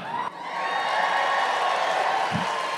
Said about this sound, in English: I said it like I expected a cheer. I don't know why you cheered for that age, but thank you.